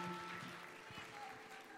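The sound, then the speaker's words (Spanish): An audience applauds in praise of the Lord after a prayer, in a steady, dense patter of many hands clapping together, with sustained musical tones and a murmur of voices underneath. “De ese aplauso de alabanza al Señor en esta hora.”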